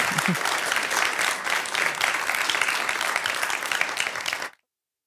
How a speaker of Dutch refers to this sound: Een applaus, een applaus ook voor jullie dat jullie er waren.